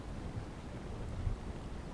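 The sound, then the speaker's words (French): Steady, low wind rushing and buffeting across an open beach, a continuous muffled roar with slight gusts and no voices, fairly soft overall. “Il y a du vent.”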